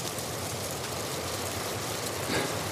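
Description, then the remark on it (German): Strong, rising wind roaring across a mountainside, heard while sheltering between a rock and a large beech tree: a steady, dense rushing noise that barely changes, swelling briefly into a slightly stronger gust near the end. No voices are heard. “Ist es aber nicht, dafür nimmt der Wind weiter zu und ich beschließe, zwischen einem Fels und einer großen Buche Schutz zu suchen.”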